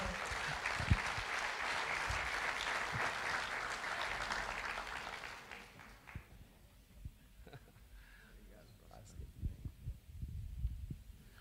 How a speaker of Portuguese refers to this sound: Vamos receber com a salva de palmas